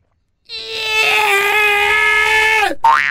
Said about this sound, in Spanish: ¡Un gato! No, no, no. Un gato en celo ese.